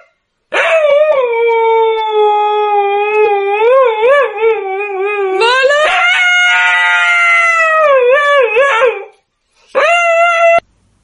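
A dog howls in one long, wavering cry that climbs higher in pitch midway through, breaks off, then gives a short final howl. Loud and close, with no talking.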